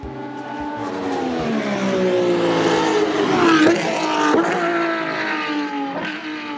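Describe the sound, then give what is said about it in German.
Roaring race car engines rev and whine continuously, pitches sliding down and back up as cars speed past, loud with no talking. “Schnelle Autos, rührende Motoren, der Geruch von Benzin.”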